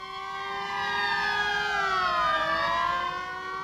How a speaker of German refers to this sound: Zwei Minuten später ertönte im Bereitschaftsraum der Polizeieinsatzgruppen 3 und 4 das Alarmsignal.